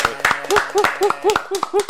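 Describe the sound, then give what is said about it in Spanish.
An audience claps in a steady rhythmic beat, about four sharp claps per second, loud and even, with pitched vocal sounds rising and falling underneath. “Yo quiero que se den un fuerte aplauso aquí”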